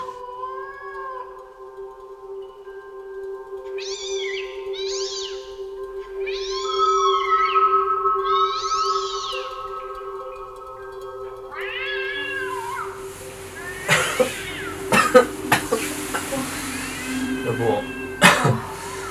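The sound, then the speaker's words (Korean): A cat outside a house at night yowls in a string of loud, drawn-out, rising wails, several cries in a row, growing harsher and more screamlike toward the end amid a rougher, noisier background. “근데 이 소리가 안 잦아들고 비명 소리처럼 더 크게 막 더 사악하게 막 음.”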